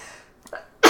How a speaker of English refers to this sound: bless you, bless you.